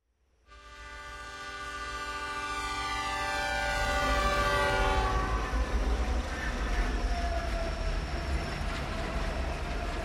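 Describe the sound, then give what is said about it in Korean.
A loud, sustained train horn blares for several seconds over the heavy rumble of a train on the rails, then fades while the steady clatter and roar keep going; the train has left Rotterdam and is passing through Germany into Switzerland. “로테르담을 출발한 기차가 독일을 통과해 스위스로 들어서는 순간 내 머릿속에는 그때의 기억이 생생하게 떠오른다.”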